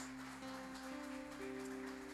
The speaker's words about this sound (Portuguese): E toda a igreja diga: você pode colocar sua Bíblia no colo e aplaudir bem bonito a palavra de Deus.